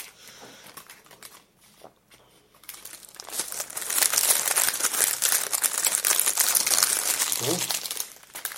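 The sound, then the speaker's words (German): A small plastic bag wrapping a housing is crinkled and torn open, its dense rustling and crackling growing louder after a quieter start and continuing steadily for several seconds. “Das mache ich mal auf. Auch nochmal in so einer kleinen Tüte drin.”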